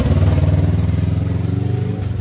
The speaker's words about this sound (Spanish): Disculpen la moto, amigos. Interrupciones innecesarias.